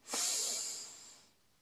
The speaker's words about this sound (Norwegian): Og så en siste gang. Pust godt inn.